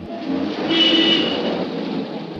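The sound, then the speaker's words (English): A car drives past, its engine and tire noise swelling to a peak midway through, then easing off slightly as it moves away. No voices. “And Martins goes towards him, and a car gets in the way.”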